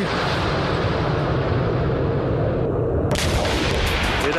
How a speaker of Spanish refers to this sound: Un tiroteo constante, explosiones constantes